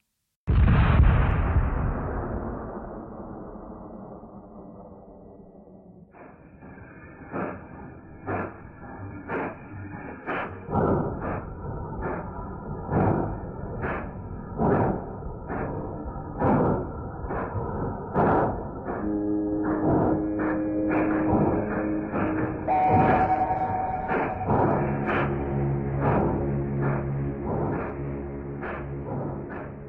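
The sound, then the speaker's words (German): A heavy cannon boom opens, then steady, droning factory siren and horn tones sound together, punctuated by repeated loud cannon blasts and machine-gun thuds at a regular pace, with no voices. It is a 1922 Soviet sound art piece using the factories of the city of Baku. “nutzt in seiner Arbeit Symphony of Factory Sirens aus dem Jahr 1922 die Fabriken der Stadt Baku, Maschinengewehre, Kanonen und vieles mehr”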